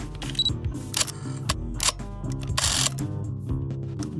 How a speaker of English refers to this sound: Camera. Okay. Camera?